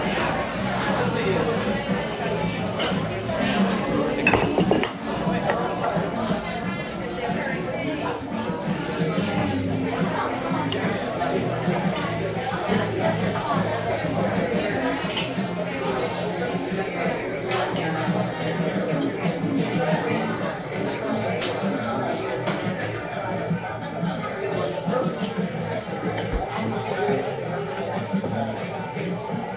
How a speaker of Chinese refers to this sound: 其实我对一个声音还很感兴趣，就是我时不时能听到，应该是后厨传来的那种呃上菜然后很大声的吆喝的声音，还有一个水汽，就是呲一下子，好像在呃炙烤什么的东西。